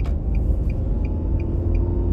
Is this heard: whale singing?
no